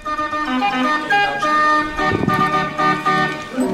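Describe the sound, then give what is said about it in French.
A short, loud show jingle of bright, buzzy synthesized tones stepping through a quick run of notes, steady and continuous for a few seconds with no voices. “Je vous explique ça juste après le jingle, mais alors là, je vous demande vraiment de tendre les oreilles.”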